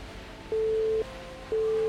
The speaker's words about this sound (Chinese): 电话里头很快传来忙音。